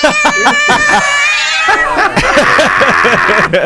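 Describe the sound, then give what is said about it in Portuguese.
A long, high, wavering meow fills the first second and a half, then gives way to bursts of rhythmic laughter that continue to the end, all loud. “Conversa com o Miau, ó.”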